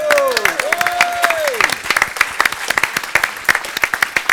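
An audience applauds: a dense, steady patter of many hands clapping for about four seconds, with a brief voice sliding over the claps at the start.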